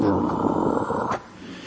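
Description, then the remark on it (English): A person imitates a dog's low, rumbling growl with their voice, a rough, sustained snarl lasting about a second before cutting off abruptly. “The dog is looking at him with a low growl.”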